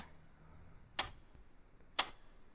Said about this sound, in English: I slide one of the wood chairs over to the wall and stand on it to reach the clock. It ticks in my hands now. It pulses like a heart beating. Tick, tick, tick.